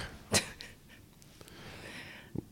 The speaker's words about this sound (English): A dog.